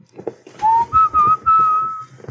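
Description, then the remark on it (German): A short whistled TV channel jingle melody, about four clear notes rising then holding steady, whistled fairly loud with no talking over it. “Was war das nochmal? RTL, du Ach so, dö, dö, dö, dö.”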